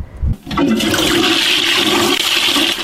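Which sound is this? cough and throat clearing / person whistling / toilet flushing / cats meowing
toilet flushing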